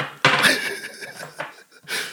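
A drinking glass tips over with a sharp clatter and bright ringing, followed by a short rattle and another clink, heard alone with no talking.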